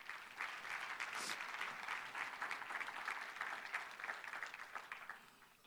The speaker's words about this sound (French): Yeah, on peut applaudir.